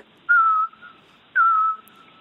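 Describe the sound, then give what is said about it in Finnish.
Two plaintive, slightly falling whistles from a fell bird heard at Latkasuo bog, clear and unaccompanied, spaced about a second apart, each a pure drawn-out note fading away. “sitten sieltä kuuluu semmoinen ehkä jopa melankolinen vihellys, niin se, se tekee vaikutuksen ihmiseen”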